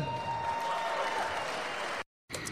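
A burst of live audience applause, dense and steady clapping from a crowd welcoming two performers during a changeover, cutting off abruptly into silence before a brief resumption.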